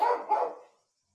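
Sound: dog barking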